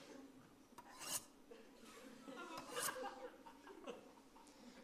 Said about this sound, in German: Herr Josua, wir haben nicht gestern Abend Messerschnitzen hören